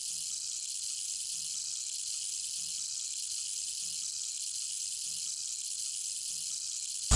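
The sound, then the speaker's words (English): Steady, bright rushing water in a frog's habitat fills the scene with a continuous hiss, unchanging throughout, while faint low pulses recur at a slow, even pace underneath. “You hear the water rushing”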